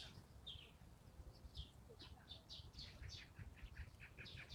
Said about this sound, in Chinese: 麻雀总是成成群结队的。